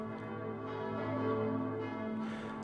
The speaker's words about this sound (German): Ungeduldig warten wir auf den Regensburger Dom. Wenn wir dem seine Glocken hören, freuen wir uns am meisten. Ich erkenne ihn nicht gleich, aber der Vati schon.